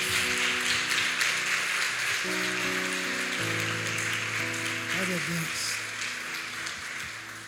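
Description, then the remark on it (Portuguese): A crowd applauds the name of the Lord, dense, steady clapping filling the whole clip and easing off slightly at the end, with sustained musical tones and a brief voice underneath. “Você aplaude o nome do Senhor?”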